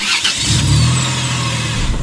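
A car engine turns over and catches, settling into a loud, steady low rumble with a hiss of noise above it as the car begins to pull away. No voices.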